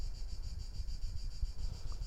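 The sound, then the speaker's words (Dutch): Crickets chirp in a steady, high-pitched pulsing drone that carries through the whole moment, set against a soft, low rumble of breeze. No one speaks. “Trap die past bij de krekels die je hoort.”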